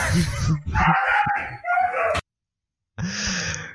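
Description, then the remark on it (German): Dogs fighting: a flurry of loud, harsh snarls and yelping barks in rapid bursts, then a brief silence before another strained growl-bark erupts. “Hier ist einfach Hundekampf.”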